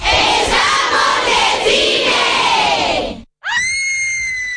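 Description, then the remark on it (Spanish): A loud crowd screams together for about three seconds, many overlapping voices in a dense roar, then after a brief silence a single high, sustained scream rings out. “Solo tienes que gritar nuestro nombre. Como ellos, nuestros pulmones de inicio.”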